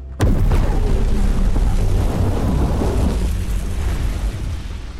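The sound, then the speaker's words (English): A sudden, loud explosion as a mechanical creature is blown apart by gunshots bursts in and rolls on as a heavy, roaring rumble that stays strong for several seconds, with no voices, only beginning to ease slightly toward the end. “Putting all I had into the shots, the mechanical horror show blew apart.”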